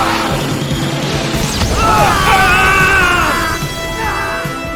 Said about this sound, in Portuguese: Ouçam bem! Ouçam a explosão das estrelas da galáxia Coringuim! Explosão galáctica!